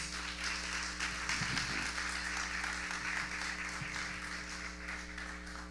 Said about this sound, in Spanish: Así que tanto como levantamos a nuestros pastores de, nuestra congregación, también queremos levantar a los pastores de las iglesias en nuestros alrededores. Así que también denle un fuerte aplauso a todos los pastores.